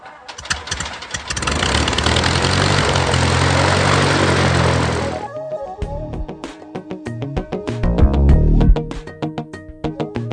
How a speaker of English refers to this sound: hearing a little bit of background noise throughout the day, but it's just airplanes, so it's not it's, it's not really noise. Good background noise.